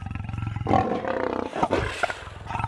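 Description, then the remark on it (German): A lion roars loudly, a deep rumbling growl that swells into a rough, throaty bellow and tapers off over a few seconds, with no voices around it. “Ich hab's gewusst. Der Löwe will mich fressen.”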